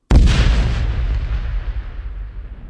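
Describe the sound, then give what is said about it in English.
A single powerful PETN plastic explosive detonation cracks out suddenly, then a deep rumbling tail rolls on and slowly fades for a couple of seconds. No one speaks. “And uh, for example, uh, another really nice explosion is the uh, uh, the PET plastic, uh, PET and plastic explosive.”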